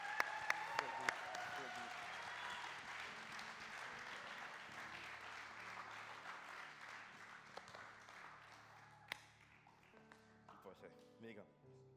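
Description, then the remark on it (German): An audience applauds two speakers steadily for several seconds, a dense wash of clapping with a few sharp individual claps standing out, gradually thinning and fading toward the end. “Sag mal, euer Applaus.”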